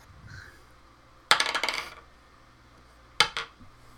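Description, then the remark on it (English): Dice being rolled for a saving throw in a tabletop role-playing game clatter and rattle across a hard surface in a burst of quick clicks lasting about half a second, then a second, shorter rattle follows a moment later. No one speaks. “He's flushing the dice.”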